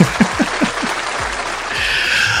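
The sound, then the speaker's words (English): A burst of canned applause sound effect played for a son's birthday, a crowd clapping densely and steadily for a couple of seconds, fairly loud, with a few distinct claps standing out at the start and no voices. “He needs an applause.”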